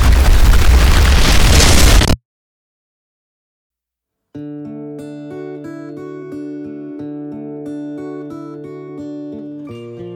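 A massive, roaring explosion blast wave hits loud for about two seconds, then cuts off abruptly into silence before steady electronic music begins.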